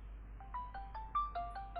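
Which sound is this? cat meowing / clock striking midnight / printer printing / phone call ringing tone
phone call ringing tone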